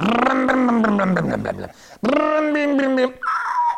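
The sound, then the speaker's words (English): A woman playing with toy cars on the floor with a small boy makes two long, buzzy, rising-and-falling engine noises in a row like a toy car revving, loud, followed by a brief higher-pitched vocal sound. “She's just sitting there like this, playing cars, making the car noise.”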